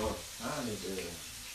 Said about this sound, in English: Thank you for frying me some fish.